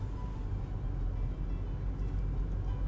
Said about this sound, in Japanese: 車のエンジンを止める。